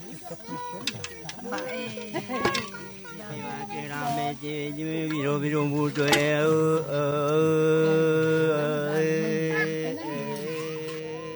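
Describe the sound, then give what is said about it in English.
Ache elders in the remote Atlantic rainforest of Paraguay chant a traditional song around a small campfire in long, sustained, wavering tones after a few short opening calls, holding steady and fairly loud from near the start to the end, with no fire crackle clearly audible. “This is the sound of Ache elders performing one of their traditional songs around a small campfire.”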